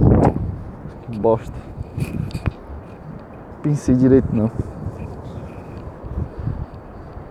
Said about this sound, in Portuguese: Pô, vai ficar contra o vento agora.